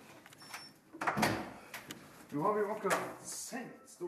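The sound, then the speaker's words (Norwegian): Heavy locked doors at Bodø police station, Salten police district, clunk open and shut with metallic latch and lock sounds, a couple of sharp knocks, while people talk faintly in the background. “leder oss gjennom låste dører på Bodø politistasjon.”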